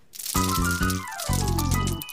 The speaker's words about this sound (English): Oh, look, Margaret. It's raining sweets.